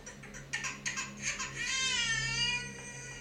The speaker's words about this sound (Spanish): tu bebé está llorando.